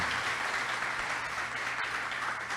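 applause

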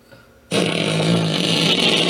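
fart sound effect

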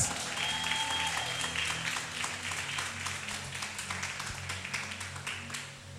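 audience clapping applause

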